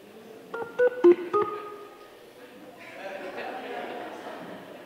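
A quick burst of telephone keypad dialing, four short two-tone beeps pressed in rapid succession, followed by a low, steady wash of background murmur.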